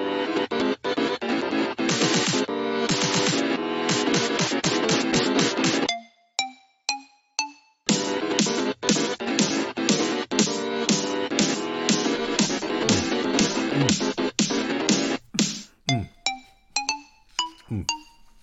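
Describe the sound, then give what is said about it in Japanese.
A short, busy electronic jingle made and sent in by a listener, with dense rhythmic chords, broken by sparse bell-like pings and chimes between sections, ending on a string of bright tones. No voices. “ラジオネーム玉姫さんから送っていただいたジングルで今回の配信スタートです。”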